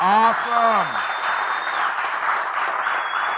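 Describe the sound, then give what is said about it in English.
An audience breaks into steady applause, a dense, even wash of clapping that keeps going for several seconds after a brief voice at the start. “Round of applause, guys.”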